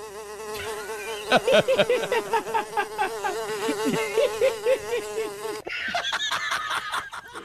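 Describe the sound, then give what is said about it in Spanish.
A steady droning buzz of flies' wings, rising and dipping in pitch, with irregular soft ticks and flutters over it, then shifting to a thinner, higher whine near the end. “No, no, borrego, oyes el ruido, pero del aleteo de las moscas.”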